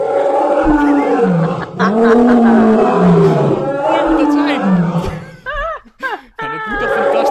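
Loud lion roars at night in the Frisian countryside: deep, drawn-out rumbling bellows rising and falling in long waves, then a few shorter, higher-pitched strained grunts toward the end before one more roar.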